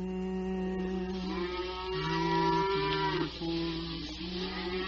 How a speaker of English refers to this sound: Oh dear, it's only the cows. They're driving them home now.